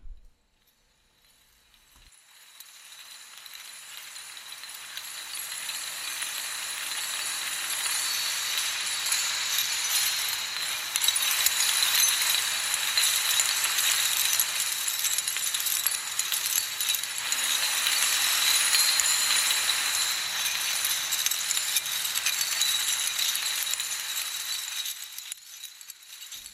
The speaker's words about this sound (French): Et on écoute à l'instant un extrait audio de l'installation cinétique Lighthouse 01 de l'artiste Alice Jarry.